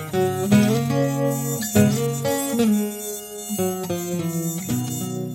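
A loud, whining mosquito-like buzz drones without pause, its pitch stepping up and down every second or so. It sounds close and strongly tonal, and no one speaks.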